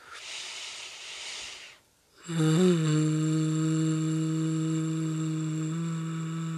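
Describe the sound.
A breathy inhale through the nose, a short pause, then a steady low hum from the throat imitating buzzing bees on the exhale, done as a calming breathing exercise, held evenly for several seconds without any talking.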